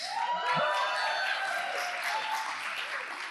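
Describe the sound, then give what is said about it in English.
Steady, loud applause from a large church crowd for the pastor's wife, a dense wash of many hands clapping at once that holds evenly for a few seconds, with no clear voices standing out. “I think you got a louder applause than, than I did, actually.”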